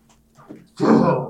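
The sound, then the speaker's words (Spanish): A single sneeze, fairly loud: a short, quiet intake of breath builds up, then a sudden bursting, breathy blast that fades quickly. “Ahí póngale salud. Salud.”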